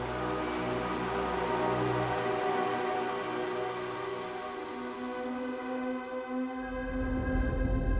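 Flowing liquid methane on Titan, a methanofall: a steady, rain-like rushing wash layered with humming, droning tones, growing a deeper rumble toward the end. No one speaks.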